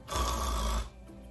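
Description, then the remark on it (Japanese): A rough, rattling throat sound like gargling, produced by a voice imitating it for just under a second to demonstrate the French R sound, then trailing off into quiet breathiness. “R の発音 R の音です R の発音これは英語の R の発音とは全く異なりますどのように発音するかというとうがいをするような”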